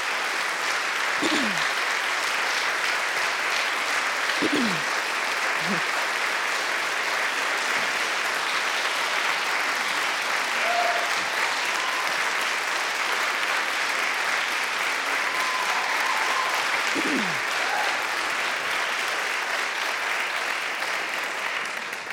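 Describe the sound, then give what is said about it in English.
Sustained applause from a large audience applauding a speaker's call to pay reparations for slavery, a dense, steady wash of clapping at even loudness throughout, with a few faint calls or whoops rising briefly above it. “I hope you will applaud as they do.”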